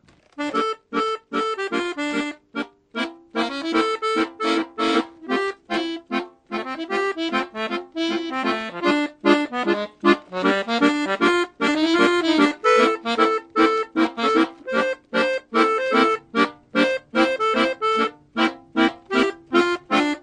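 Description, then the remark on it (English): An accordion plays swinging jazz chord progressions, played with one finger instead of the usual oom-pah beat, with a bouncy rhythm, short punchy stabs and sustained bellows notes alternating throughout, fairly loud, with no talking. “In his music, he changes them into jazz chord progressions.”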